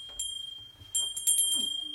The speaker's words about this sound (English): could you just just gently ring this bell?